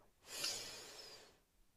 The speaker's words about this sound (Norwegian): Og så gjør vi det samme igjen. Puster godt inn. Og hold pusten. Og enda en gang. Pust godt inn.